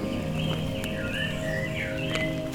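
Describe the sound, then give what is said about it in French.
Birds sing in a misty forest massif north of the Cagir, under a few drops of rain, their warbling, gliding calls rising and falling over a steady low hum of ambient noise, fairly soft. “nord du Cagir avec, pour seule compagnie, le chant des oiseaux, le chemin qui s'élève dans la brume.”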